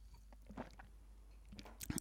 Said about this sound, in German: Ich muss mal kurz äh, einen Schluck trinken. Wie ihr wahrscheinlich hört, Frosch im Hals.